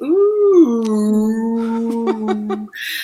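A single long, drawn-out dog howl, rising briefly and then holding a steady, mournful pitch for nearly three seconds, fairly loud, ending with a few faint clicks; the dog howls along to a phone alarm ringing in the morning.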